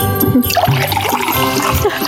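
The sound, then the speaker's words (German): Sparkling water pours steadily into a glass for a couple of seconds, a bright trickling and splashing sound with no talking over it. “Ich schütte mir erstmal ein Glühwein ein.”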